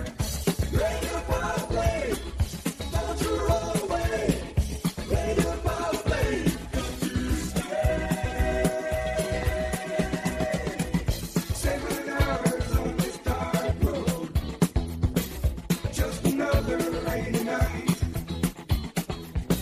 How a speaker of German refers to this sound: Und dazu gibt's auch so einen geil beknackten Song und der hört sich so an.